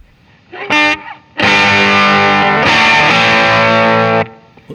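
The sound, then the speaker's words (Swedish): A bright, distorted electric guitar played through a treble booster pedal plays a short chord stab, then a loud sustained chord that shifts once midway and rings out for about three seconds, with no talking. “Men då tar vi treble booster då.”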